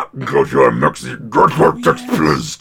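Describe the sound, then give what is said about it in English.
A loud voice makes a string of rough, guttural growling noises in short bursts, imitating an animal rather than speaking words. “just makes these guttural noises.”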